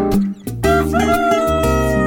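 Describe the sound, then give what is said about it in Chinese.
A rooster crows once, a loud drawn-out call that rises and then holds, set against a steady backing of sustained musical tones. “小公鸡，喔喔喔，起得早，喔喔叫。”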